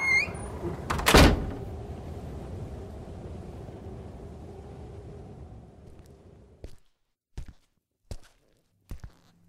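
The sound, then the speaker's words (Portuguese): The door of a small stone house amid thick snow creaks and swings open with a heavy thud, followed by a low rumbling wash of noise that fades, then four soft, evenly spaced footsteps as someone enters in silence. “Percebo o ranger da porta ao se abrir e entro em silêncio.”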